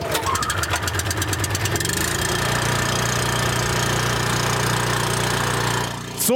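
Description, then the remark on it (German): A small generator engine powering electrofishing equipment on the Stepenitz river cranks with a rapid knocking start, then settles into a steady, loud mechanical drone that runs throughout before briefly cutting off at the end. “und es heißt zwar Elektrofischerei, aber dieser Strom muss natürlich irgendwie entstehen. Und deswegen begleitet uns jetzt dieses Geräusch beim E-Fischen.”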